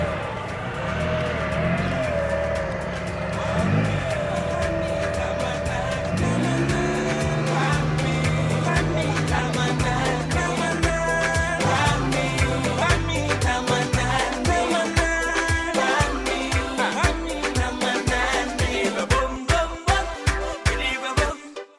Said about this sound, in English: I've just got off a boat, my bike was on it, and bike seems to be running okay at the moment. I don't want to turn it off because if I turn it off, it might not come back on again.